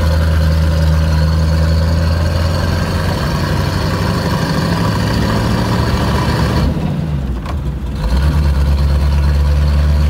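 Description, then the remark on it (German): A special roadster sports car engine runs loud with a steady, throaty drone and a high supercharger whine on top; it briefly drops off near the end before surging back. “Ganz am Ende hört ihr dann übrigens auch das Heulen des Kompressors.”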